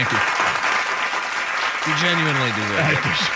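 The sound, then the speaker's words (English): Steady, dense applause fills the whole clip with a continuous crackle of many clapping hands, while a voice speaks over it partway through. “I think that's what got good. the applause.”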